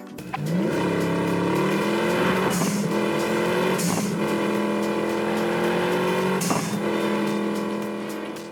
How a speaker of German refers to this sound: Ihr hört, alle etwas unterschiedlich, nicht immer passend, aber damals klangen die Autos auch eher so.